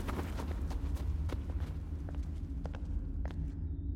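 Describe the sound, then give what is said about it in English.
Quick, light footsteps of a child running patter along the hard floor of a hallway in an irregular run, each step a short sharp tap over a steady low hum, with a faint echo through the halls. “The sound of pitter pattering footsteps echoes through the halls.”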